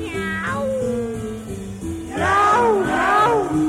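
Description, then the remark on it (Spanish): A cat meows loudly several times in a row, drawn-out wavering cries that rise and fall, with steady musical tones humming underneath. “¿Dónde está mi gato?”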